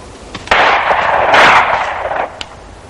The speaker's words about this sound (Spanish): Purita oye la caza desde la ventana del cuarto de Iván. Con su vergajo en la mano, don Pedro camina bajo la ventana. Ve a su mujer acechando los disparos de Iván.